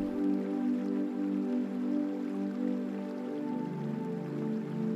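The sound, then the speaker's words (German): A steady, continuous wash of flowing river water, evenly loud throughout with a soft trickling, splashing texture and no voices. “In der Einschlafmeditation machen wir eine Traumreise an einen Fluss, an dem wir die Naturgeräusche des Flusses wahrnehmen”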